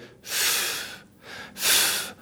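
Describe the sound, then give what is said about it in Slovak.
A slow, deep calming breath in the manner of zen breathing, drawn in and then let out, two long airy whooshes with a short pause between them, with no talking. “si predstaví to, zenové dýchanie.”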